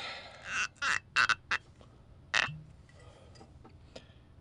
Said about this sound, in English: So, as we start tonight's nightcap, let's go ahead and pour ourselves a little slug of the old wild turkey.